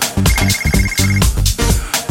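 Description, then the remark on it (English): A phone rings in a busy, rhythmic electronic pattern, a sustained high tone riding over repeated pulsing beats, loud with no voices. “Huh, hello? I'm gonna get on the cell phone.”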